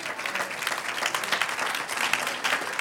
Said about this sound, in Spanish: Un aplauso al Señor.